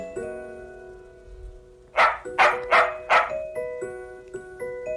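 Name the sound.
small dog barking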